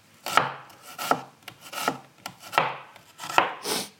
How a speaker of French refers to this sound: Et ensuite, je coupe des lamelles très très fines pour pas que ce soit quand même trop fort en bouche.